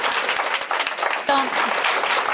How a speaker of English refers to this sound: And y'all gonna see all these people in here. Everybody give them a round of applause, please.